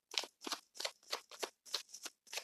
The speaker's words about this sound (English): I'm shuffling the Tarot Oshun deck. I don't know if you can hear it or not.